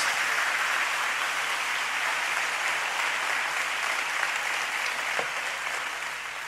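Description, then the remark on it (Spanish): Steady, sustained applause from a large crowd clapping for Jesus, a dense wash of clapping that holds at an even loudness for several seconds and tapers slightly at the end. No talking over it. “Demos un fuerte aplauso a Jesús.”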